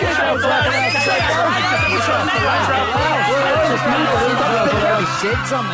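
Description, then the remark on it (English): A dense crowd of people shouting and chattering all at once about whatever Israel Folau just said, a loud, continuous wall of overlapping voices with no single speaker standing out. “But every time I turn on the TV or read the news or even just open my window a tiny fraction, everyone is constantly screaming at me about whatever Israel Folau just said.”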